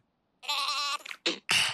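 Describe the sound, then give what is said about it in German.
A sheep bleats loudly: one long, quavering baa, then a few shorter, breathy bursts in quick succession, with no talking. “Hallo Schaf.”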